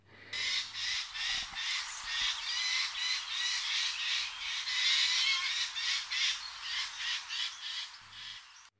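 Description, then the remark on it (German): Harsh, raspy screeches of a Eurasian jay repeat in a rapid series of about twenty bursts, loud, a grating alarm call with no talking. “aber auch andere Vögel des Waldes verlassen sich auf diesen Warnruf des Eichelheers”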